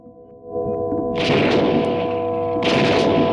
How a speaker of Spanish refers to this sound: Los primeros dos disparos impactan en John en su espalda, haciéndolo girarse, mientras que otros dos impactarán en su hombro. Un quinto disparo fallará.